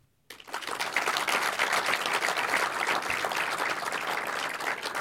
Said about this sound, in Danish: Og mens vi er i gang med klapsalverne, så giv også lige jer selv en stor hånd.